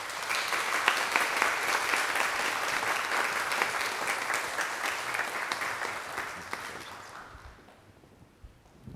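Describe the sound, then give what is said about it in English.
A church audience applauds those being honored for their accomplishments, a dense patter of many hands clapping steadily before gradually tapering off and fading near the end. “Let us hear it for them.”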